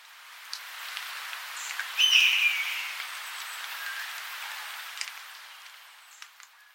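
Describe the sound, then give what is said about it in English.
A Steller's jay gives one harsh, hawk-like scream imitating a hawk, loud and brief, over a steady hissing background with a few faint clicks and ticks. “Here's a red tailed hawk call, a real one and here's a Steller's jay mimicking a hawk.”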